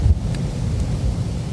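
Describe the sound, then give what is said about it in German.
Wind buffets the microphone in a steady low rumble, swelling slightly in gusts throughout, loud with no voices. “Es ist jetzt wieder ziemlich windig, ne?”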